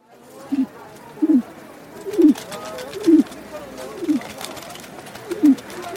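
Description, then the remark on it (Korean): A pigeon coos near someone's feet at the entrance of a night market, in a steady, repeating rhythm, six soft low calls spaced about a second apart, over a faint background hiss. “구구구구 발 언저리에서 비둘기가 울어댔다.”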